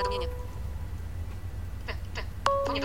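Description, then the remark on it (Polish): An iPhone ringtone plays for an incoming call, short electronic melodic tones, one burst at the start and another near the end, fairly clear over a steady low background hum, with no one talking. “Tak, i zaraz posłuchamy, jak u mnie dzwoni iPhone.”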